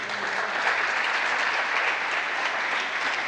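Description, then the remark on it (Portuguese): Steady, dense applause from an audience for a man, a continuous wash of many hands clapping at an even loudness throughout, with no voices standing out. “Pode aplaudir a ele.”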